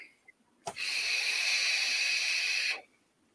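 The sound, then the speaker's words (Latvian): A long, steady breathy exhale of vape vapor, an airy hiss lasting about two seconds that starts abruptly and cuts off cleanly, with no talking. “Un, protams, ka tvaiks.”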